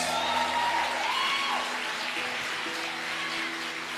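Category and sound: crowd, applause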